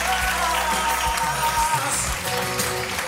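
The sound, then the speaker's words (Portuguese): A steady burst of applause, many hands clapping in a dense, continuous patter for a few seconds, fairly loud, with no clear speech over it. “salva de palmas.”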